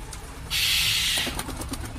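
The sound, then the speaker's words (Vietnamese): A loud, harsh crow screech bursts out inside a cave for under a second, followed by a quick series of wing flaps fading off, with no voices. “tiếng quả bất chợt ré lên bên trong hang động tiếng đập cánh vang lên rồi từ đâu một con quả đen xì với một cặp mắt đỏ au đậu ngay trên vai”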